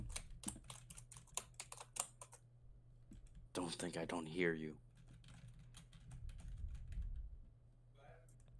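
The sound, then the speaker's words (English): Rapid computer keyboard typing and mouse clicks from someone playing the video game Roblox, a steady clatter of sharp taps, interrupted midway by a brief spoken line before the clicking resumes more faintly. “I could hear those clicks, like.”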